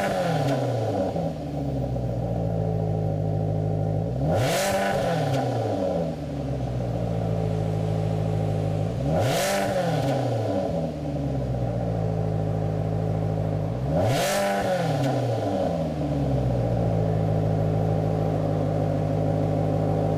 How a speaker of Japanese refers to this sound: エンジンはイタリアマラネロの工場で作られたフェラーリ製4.7リッター自然吸気 V8 エンジンから流れ出すまるで管楽器のようなサウンドをお楽しみください。